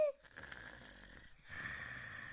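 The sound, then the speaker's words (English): A person imitates a snoring grandmother: two long, raspy snores follow one another, a breathy rasp lasting over a second and then a brief pause before a second, steadier rasp. The sound is moderately loud, and no one talks. “And on that granny, there is a child, a dreaming child, 一个在做梦的男孩 on a snoring granny.”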